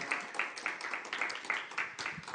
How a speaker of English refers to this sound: Thank you, worship team. Can we give a round of applause to our worship team? They do such an amazing job.